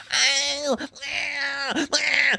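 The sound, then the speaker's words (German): A voice imitates a shrill, high-pitched pigeon-deterrent horn with three drawn-out squealing notes in quick succession, each sliding slightly at the end, fairly loud with no other sounds. “Vielleicht braucht man einfach auch so eine Hupe, das dann so ein für uns Menschen nicht hörbares Geräusch macht oder so, nur für Tauben, Taubenhupe”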